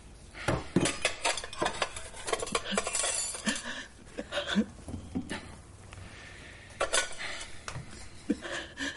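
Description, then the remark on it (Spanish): Dirty plates and glasses are set down in a kitchen sink, producing a busy series of ceramic clatters and glassy clinks, irregular and fairly loud, with no talking. “Coge los platos y vasos sucios y los mete en el fregadero.”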